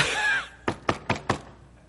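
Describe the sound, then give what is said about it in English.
A computer mouse bangs against a desk four times in quick, even succession, each a short hollow thunk, following a brief whooshing, squeaky noise at the start. “Did anybody else ever bang your mouse?”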